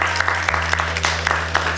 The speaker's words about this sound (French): Ok, on peut, on peut l'applaudir une nouvelle fois, s'il vous plaît.